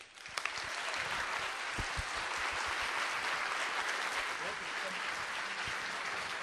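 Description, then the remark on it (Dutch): A crowd claps steadily in a dense, sustained wash of applause lasting several seconds, welcoming the author of a book onto the stage at an evening event, with a few brief sharper claps and faint voices mixed in. “Geeft u hem een daverend applaus.”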